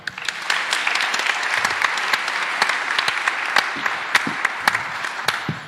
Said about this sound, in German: einen Applaus für Annika